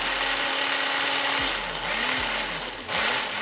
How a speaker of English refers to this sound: That's the sound of breakfast for me, the grinding and mulching of most of my five plus a day, and generally the greener the better.